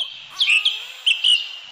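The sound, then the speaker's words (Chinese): Birds chirp in a forest, giving a few short, high tweets in quick bursts over a steady, soft hiss of background ambience. No one speaks. “这是森林的声音”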